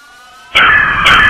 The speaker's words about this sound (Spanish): Los sonidos inconfundibles de rechinar de llantas que frenaron con gran velocidad fue lo que percibió.